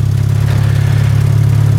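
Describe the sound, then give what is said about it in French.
An engine runs steadily, a loud, low throbbing drone with an even pulsing rhythm and no change in pitch, heard alone without any voices. “Mais ils continuent quand même à allumer des moteurs pour retirer des ronces, retourner la terre, couper l'herbe, scier des planches, se balader dans la montagne.”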